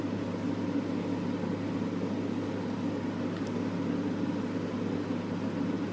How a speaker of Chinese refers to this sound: 如果我是现在在听 Podcast 的，你会觉得超怪，整整三十秒都没有人讲话，然后只有冰箱的噪音。